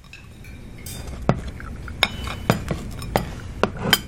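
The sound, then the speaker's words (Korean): A restaurant staff member sets a table one piece at a time with three kinds of glasses, two pairs of forks and knives of different sizes and four spoons: a series of about seven bright clinks and taps with short pauses between them over a soft background hush. “약속 시간이 다가오자 따뜻한 물과 시원한 물, 세 종류의 유리잔, 크기가 서로 다른 두 쌍의 포크와 나이프, 네 개의 스푼이 은희의 앞에 제자리를 찾아 놓였다.”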